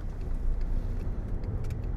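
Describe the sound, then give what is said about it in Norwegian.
Steady low rumble of road noise from inside a moving car, a continuous engine and tire drone filling the low end with no speech, as the driver signals a left turn on a road with little traffic. “Jeg kan blinke til venstre her, for her er det ikke så mye trafikk.”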